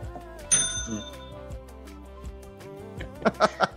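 A bright bell strikes once with a ringing, fading tone, followed near the end by a few quick, sharper metallic rings over a steady hum.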